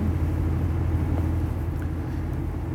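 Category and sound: vehicle, car engine starting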